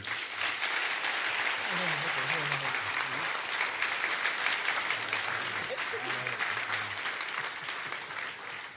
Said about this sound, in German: Aber ich glaube auch Klaus Sonnenschein, auch wenn er nicht hier ist, hat nochmal einen Applaus verdient. Vielen Dank.